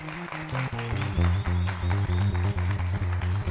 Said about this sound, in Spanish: Bien, si pasaron cosas, regálele un aplauso a Dios.